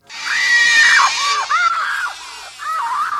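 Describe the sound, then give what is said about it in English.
A woman screams loudly and continuously in a movie scene, Kate Capshaw's character in Indiana Jones and the Temple of Doom, her shrill voice rising and wavering through several drawn-out cries with brief breaks, dominant over a faint background hiss. “Jones is my most quoted line from the series, but from my least favorite movie, Kate Capshaw's character just never stops screaming.”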